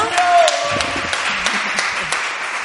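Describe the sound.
A church audience applauds a first-time visitor steadily for a few seconds, a dense, even wash of many hands clapping at once, with a few sharper claps standing out and faint voices mixed in underneath.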